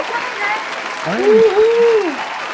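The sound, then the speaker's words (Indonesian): A steady wash of audience applause, loud and continuous, with a voice letting out a drawn-out, rising-and-falling cheer over the clapping midway through. “tangan penonton.”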